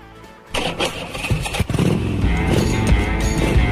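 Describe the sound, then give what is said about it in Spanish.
A motorcycle engine cranks and catches after a quiet moment, then settles into a loud, steady idle with a few throttle blips revving it up. “dedicado a aquellos que se suben a una moto y disfrutan del placer de recorrer kilómetros y kilómetros arriba de la misma, ¿eh?”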